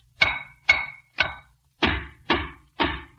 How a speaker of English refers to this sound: Well, do you have to make all that noise? Don't you realize somebody might be sleeping? At this time of day? Why, no, sis. Besides, I'm tapping these walls for secret panels.